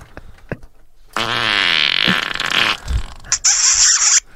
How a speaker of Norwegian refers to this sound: ja, er, og dette er et annet uh, eh, prompesandboard enn tidligere, så jeg tror jeg skal ha kontroll på denne.